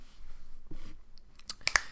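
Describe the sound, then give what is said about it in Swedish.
Crisp crunching and smacking of someone chewing Maryland cookies, a few soft bites building to sharp, bright crunches near the end. “Fan, sitter du och Vänta. smaskar på en tisdag?”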